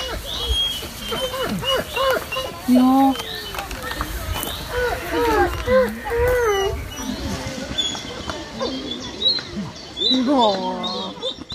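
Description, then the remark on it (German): Two hand-raised wolves in an enclosure whine, yelp and wail excitedly, their rising and falling cries overlapping almost continuously, while a person briefly speaks; a wolf researcher approaches and they sort out which wolf greets her first. “Wir hören hier zwei Wölfe, die sich offensichtlich freuen,”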